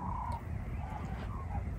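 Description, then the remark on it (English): Several birds call at sunrise in short, repeated bursts over a steady low background rumble, the calls overlapping with no one speaking. “I listen to that, you know, it's, it's all the birds”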